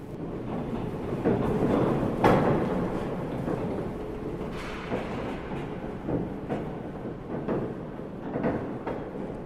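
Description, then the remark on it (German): Heavy mechanical rumbling of the old Elbe Tunnel vehicle elevator at the Landungsbrücken, in service since 1911, descending 23 metres with a car and two pedestrians. A steady whirring hum, intermittent clattering knocks and sharp rattles as cables run and wooden gates shake. No voices. “Die Seile surren, die Holztore klappern.”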